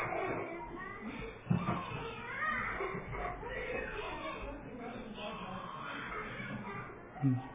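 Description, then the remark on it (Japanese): Children's voices chatter and call out indistinctly, a steady busy murmur of kids at play, with a couple of brief louder bumps. “子供ですね。”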